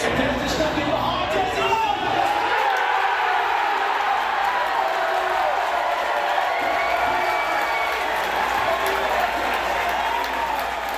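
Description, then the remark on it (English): A large crowd of USA soccer fans at City Park cheers and roars nonstop while watching the World Cup game against Iran, a dense, loud wash of many voices with scattered whoops that holds steady for the whole stretch. “Well, the cheering has faded for the USA in this World Cup, but they put their bodies on the line for their country.”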